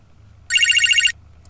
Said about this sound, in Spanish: Teléfono.